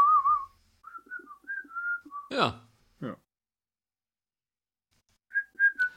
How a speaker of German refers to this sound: Me meine Frau kann das nicht. Die kann auch nicht pfeifen. Ah, das kann ich ganz leicht.